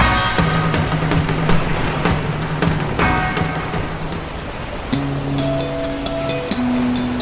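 Steady ocean surf washes and breaks on a beach, a full hiss of foam and spray, with soft sustained low tones humming beneath it and shifting higher near the end.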